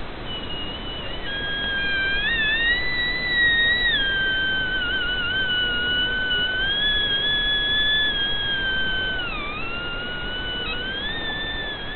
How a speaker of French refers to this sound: mais on va aussi pouvoir explorer des paysages sonores comme le champ de glace.